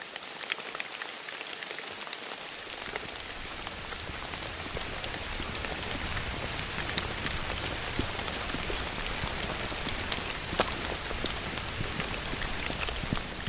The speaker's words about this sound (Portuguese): Pouco depois começa a chover, de forma impiedosa e sem tréguas, até o fim da jornada em Sé.